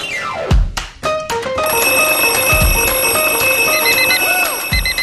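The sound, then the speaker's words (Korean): An alarm clock rings loudly and continuously as a morning wake-up alarm, its bright electronic beeping and chiming repeating over several seconds, with a few sharp thumps at the start and no voices. “매일 아침을 깨우는 지독한 알람 대신에 총디가조종을 올려드립니다”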